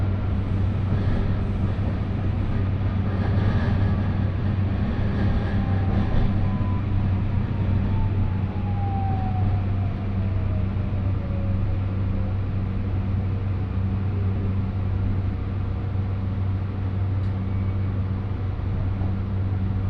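A train running on the Kagoshima Main Line in Japan between Ōmuta and Kami-Kumamoto, approaching Tabaruzaka station: a steady, loud low rumble and drone throughout, with a faint whining tone that slowly glides downward in pitch as the train slows. No one speaks.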